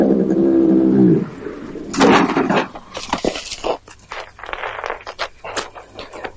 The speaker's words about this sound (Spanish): Al poco llega cerca de la casa, pierde el control de la moto y se cae al suelo con ella.